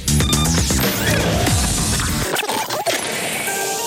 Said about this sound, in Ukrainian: Ось такі ключі полетіли в прямому ефірі.